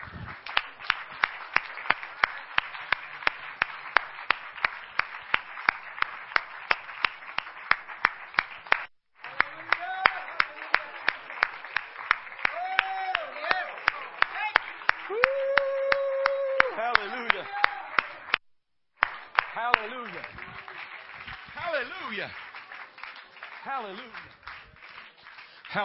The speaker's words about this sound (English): Let's stand together and clap our hands to the Lord. Hallelujah. I feel like praising Him right now. Clap your hands to the Lord.